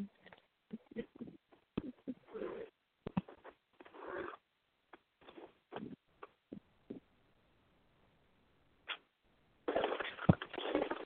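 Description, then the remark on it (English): A pet bird calls with a string of short, irregular chirps and squawks separated by brief pauses, ending in a longer, harsher raspy burst. “silly bird. Told you already.”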